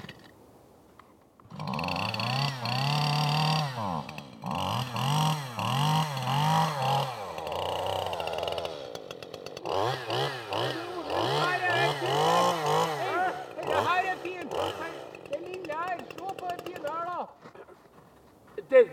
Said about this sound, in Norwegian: Nå har jeg tatt med motorsag.